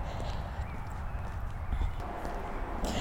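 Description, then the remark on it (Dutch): Cars pass by outside, a steady low rumble of traffic, continuous and fairly faint, with no one talking. “ik hoop dat je de auto's nu niet te veel hoort.”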